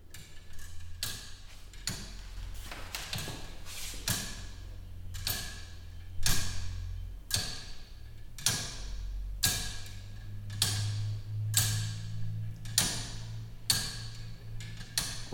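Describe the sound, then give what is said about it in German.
A mechanical clock without a pendulum ticks steadily but slightly unevenly, sharp clicks arriving about once a second, over a low background rumble with no talking. “Dass das nicht regelmäßig tickt, das macht nichts, das ist nicht ganz gleichmäßig ist.”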